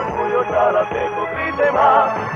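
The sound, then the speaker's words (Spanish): The anthem of the Chalatenango football club plays with a tinny, band-limited sound, like it's coming through a small speaker. The music is steady and fairly loud, with no one talking over it. “Ese es el del Chalatenango.”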